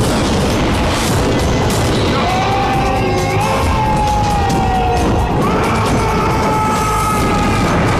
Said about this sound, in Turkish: Mustafa'nın işaretiyle kadırgalar sarayı top atışına tuttular bir anda. Ağır çekimde saraya yönelmiş onlarca top.